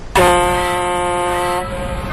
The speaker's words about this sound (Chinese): 升船机是一个巨大的长方形建筑，位于三峡大坝左岸。轮船在鸣笛声中缓缓驶入升船机。